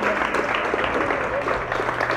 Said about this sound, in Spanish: Síguele aplaudiendo, no, síguele aplaudiendo, síguele aplaudiendo. Y que cada aplauso sea una, una confirmación.